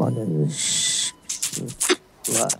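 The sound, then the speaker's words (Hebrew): A soft rustling hiss of hair settling on shoulders, picked up by a sensitive microphone, lasting about half a second, with murmured voice sounds and short breathy bursts around it. “המוכר אמר שאם מקשיבים טוב, אפשר לשמוע את השערות סומכות לך על הכתפיים.”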